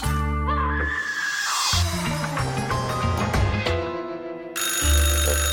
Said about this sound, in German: In Ginheim klingelt bei einem 77-Jährigen das Telefon.